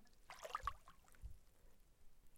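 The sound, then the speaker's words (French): Soft water sounds lap gently around a rowed boat, with a brief swishing splash early on and low, muffled knocks as oars push the water behind the boat, all quiet with no talking, in a very light breeze. “si ce n'est le tremblement de quelques feuilles, le léger clapotis de l'eau.”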